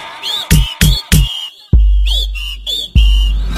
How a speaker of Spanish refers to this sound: Todo el mundo chiflando.